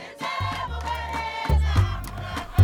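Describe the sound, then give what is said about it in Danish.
A person imitates the peaceful contentment vocalization of wild mountain gorillas with two deep, sustained rumbling grunts in a row, fairly loud over a busy background. “Now I had the crawl around for two years, came to imitate their peaceful vocalization, their contentment vocalizations, mom like this.”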